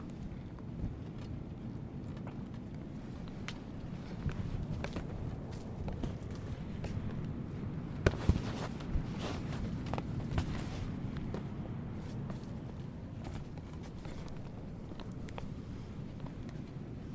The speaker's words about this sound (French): Le vent souffle un peu plus fort, c'est marrant. Ça ouvre les pans de la, la porte en tissu de la tente. Le mouvement est magnifique.